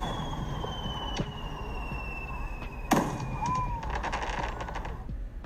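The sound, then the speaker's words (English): Fireworks rising and going off in the sky: a faint pop, then a sharper bang followed by a scatter of crackles, with a thin whistling tone drifting over steady outdoor background noise. “On the way home from the office, fireworks suddenly rose in the sky.”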